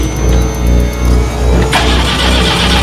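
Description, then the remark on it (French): A car engine cranks with a steady, rhythmic churning, then catches and bursts into a loud, even run, with no voices. “Allez, moteur Moteur Allez, moteur”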